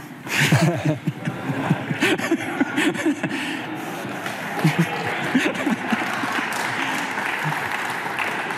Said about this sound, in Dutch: Applaus.